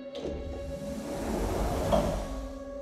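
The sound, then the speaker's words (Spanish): A door opens slowly, with a drawn-out creaking scrape over a low, steady background hum, lasting a few seconds with no one speaking. “la puerta se estaba abriendo y el juguete entró.”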